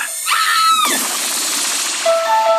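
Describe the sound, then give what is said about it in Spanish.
A short, high scream sweeps downward near the start of a brief produced jingle, followed by a loud rushing whoosh and a few sustained electronic tones, with no talking. “Oye, ese grito debió haber estado mucho más.”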